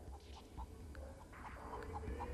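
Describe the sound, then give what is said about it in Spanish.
A rooster clucks in a quick, steady series of short, rhythmic notes over a low background rumble with no talking. “Y otra vez entra el gallo.”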